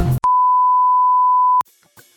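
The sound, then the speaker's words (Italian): A single long, steady electronic beep at a constant pitch holds loudly for over a second, starting and stopping abruptly with brief clicks, followed by faint background noise. “chi non adora il top, il branch, il super, il cool, il trend, il fashion, i guys, il cute, il super cute e soprattutto i bip.”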